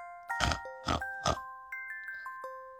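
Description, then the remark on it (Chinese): A child practicing pig sounds imitates a pig with three loud, snorting oinks in quick, even succession, followed by soft, steady musical tones with a faint chime. “于是每天晚上，我都认真地看三只小猪的故事，还很认真地练习猪叫。”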